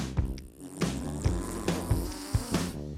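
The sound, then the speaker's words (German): A buzzy, rumbling monster fart sound effect stretches across the moment, blurting over a bouncy musical backing with steady percussive beats. “Monsterpups wohl so?”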